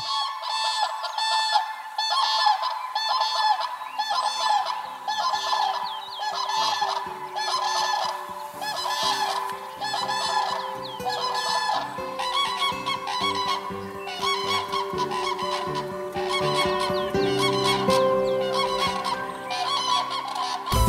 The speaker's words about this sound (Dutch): En dan nu het geluid van, ben je er klaar voor? De kraanvogel.